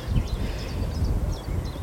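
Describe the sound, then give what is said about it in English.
A steady, soft rustle of birch leaves stirred by the wind, continuous throughout, with a few faint bird chirps high in the background. “It's the birch leaves rustling.”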